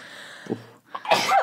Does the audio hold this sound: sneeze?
yes